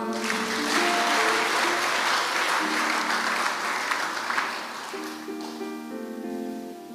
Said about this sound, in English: Uh, give the Lord a clap.